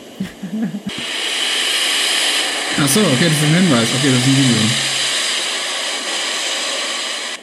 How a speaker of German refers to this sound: Das klingt irgendwie nach Straßenreinigung, aber es könnte natürlich irgendeine Maschine sein. Waschanlage, würde ich sagen. Automaschanlage.